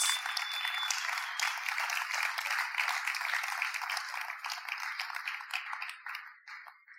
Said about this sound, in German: erzähl sie uns allen und wir geben einen großen Applaus